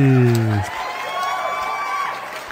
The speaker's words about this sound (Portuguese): Palmas para eles!